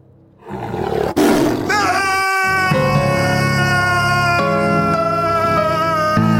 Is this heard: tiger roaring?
yes